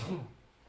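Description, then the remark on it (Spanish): A single short sneeze, caused by an allergy to a cat, bursts out at the start and quickly fades, fairly soft, followed by a faint quiet tail. “Estornuda se llama este episodio”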